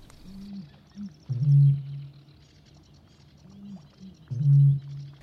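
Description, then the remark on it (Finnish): Two deep, resonant booms from a male Eurasian bittern giving its courtship call, each preceded by softer gulping intakes, repeating about three seconds apart over a quiet marsh background with faint birdsong. “Kaulushaikaran löytääkin helpoiten parhaalta lintukosteikoilta, joissa komeaa soidinääntä saattaa puhelella useampikin koiras.”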